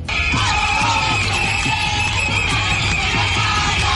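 A large crowd of protesting firefighters demanding pay improvements yell and shout together, heard live at the gates of the Parque de la Ciudadela by the Parliament in Catalonia, in a dense, continuous roar that stays loud and steady throughout, with raised voices overlapping and no clear individual speech.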